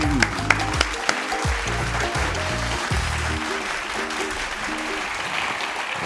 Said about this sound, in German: Und also uns aufstehen. Lass uns klatschen und ganz laut zusammen sagen «Iu».